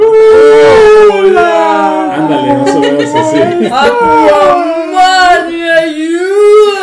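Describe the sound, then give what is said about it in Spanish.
Loud, continuous whale-like calls of creatures communicating underwater, long wavering cries that glide up and down in pitch and overlap one another, with a person briefly speaking over them. “padre cómo se comunican ellos bajo el agua, parecen como, como estos delfines, no, como delfines, como ballenas que hacen ciertos sonidos y se, así se comunican.”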